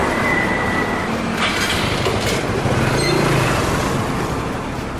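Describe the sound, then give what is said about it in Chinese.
A motorcycle taxi ride through the streets of Bangkok, Thailand: a loud, steady rush of engine and wind noise that holds constant for the whole stretch, with faint brief tones surfacing from traffic and no talking. “好啦，我知道泰国的天气很热嘛，大家也都不想走路，没有关系，那我们就来体验一下泰国最常见也最方便的交通工具，那就是摩托车。”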